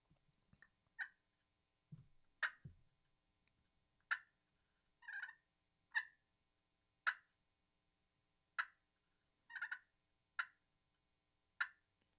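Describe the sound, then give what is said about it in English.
Soft, clipped hen clucks made with a turkey call repeat about a dozen times at loose, uneven intervals, with a brief burst of low rustling and scratching in dry leaves near the start, imitating a hen feeding to draw a turkey in. No voices. “Uh, just some light clucks”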